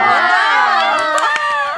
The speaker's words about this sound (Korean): 리액션 뭐야? 뭐 했다고 이렇게 박수를 해주는 거예요? 네. 감사합니다.